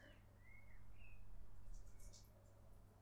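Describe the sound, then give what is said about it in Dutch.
Small birds chirp faintly in a windless garden, a few thin whistled notes followed by brief high twitters, soft over a low steady hum. “Nou is het sowieso vaak windstil bij mij in de tuin. Maar dan die vogeltjes.”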